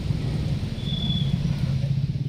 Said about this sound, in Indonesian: Walaupun tergenang, beberapa mobil dan motor ada yang nekat menerjang banjir.